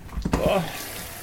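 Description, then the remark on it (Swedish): A tap runs water into a thirsty dog's water bowl, a steady hissing pour with a brief clunk near the start, lasting about a second with no talking. “Och då så ska jag, hinner jag ge hunden lite vatten.”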